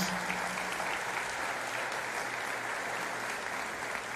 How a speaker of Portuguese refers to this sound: Enquanto isso, igreja, dê uma salva de palmas para receber a todos esses irmãos.